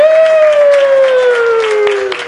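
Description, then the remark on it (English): A group lets out a long, loud sustained cheer, the voices holding one slowly falling note, with scattered hand claps popping underneath throughout. “All right, you guys, do your cheer.”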